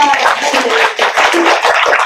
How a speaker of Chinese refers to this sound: 先鼓掌吧。